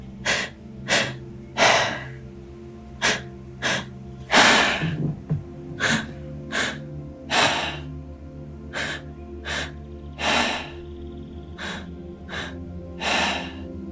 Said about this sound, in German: Dann beginn zu atmen. Atme zweimal ein, einmal aus. Der Rhythmus sollte ungefähr so sein.